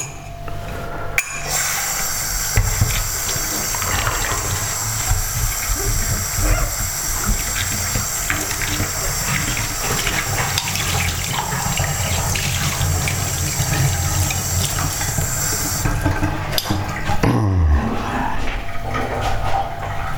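A tap runs steadily with a broad, hissing rush of water while a cup is washed beneath it, with faint clinks and splashes shifting in the stream before the water shuts off.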